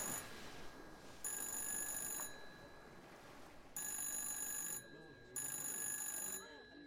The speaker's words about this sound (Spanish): Y mientras todo esto pasa, el teléfono sigue sonando. Pero el bait está tan de fiesta en este momento que nadie lo oye.